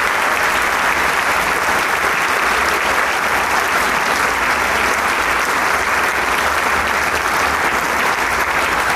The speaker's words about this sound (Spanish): Un gran sexto concierto de temporada. Y el aplauso no deja duda de ello. Sin lugar, sin lugar a dudas.